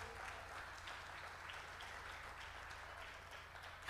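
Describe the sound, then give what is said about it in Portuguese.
An audience applauds God at night in a steady, sustained wash of clapping that fills the whole stretch, even in loudness, with no voices standing out. “Pode aplaudir a Ele nesta noite.”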